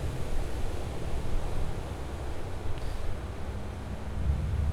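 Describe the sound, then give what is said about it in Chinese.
Ocean waves at a north coast beach make a steady, full rushing roar with heavy low rumble and some wind buffeting. Individual breakers are hard to pick out, and no one speaks. “这就是呃，那个我在北海岸海边啊录下来的声音，很想要跟你分享。然后说到海浪啊，我不知道你能不能分得出沙岸或沿岸的声音呢？”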